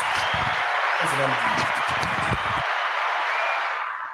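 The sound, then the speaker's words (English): Steady, dense hand clapping fills the whole stretch as a round of applause for Prime, with voices briefly talking or cheering underneath early on before the clapping carries on alone and tapers off at the end. “I'm gonna give him a round of applause.”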